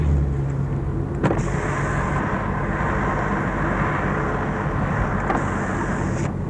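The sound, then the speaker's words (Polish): Steady engine and road rumble inside a moving car; after a click a window opens, letting in a loud rush of wind hiss that continues for several seconds before another click cuts it off. “a na przykład otworzę na chwilę szybę.”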